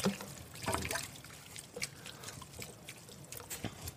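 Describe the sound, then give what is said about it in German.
About a liter of tomato broth, water with much tomato paste, pours and splashes into a pot of minced meat and vegetables, a steady trickling with a few louder glugs and sloshes, moderately quiet, with no talking. “Und jetzt kommt eben Tomaten. das Tomatenbrühe, Tomatenwasser mit relativ, also Wasser mit relativ viel Tomatenmark.”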